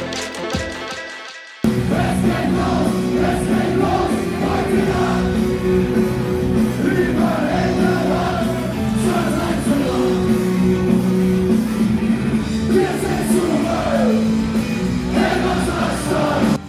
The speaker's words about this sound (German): Es ist 21.15 Uhr. Gerade spielt die Band ihr erstes Lied. Die Zuschauer in den ersten Reihen klatschen und singen. In völliger Ekstase werden Rauffackeln gezündet und Bierbecher fliegen durch die Luft.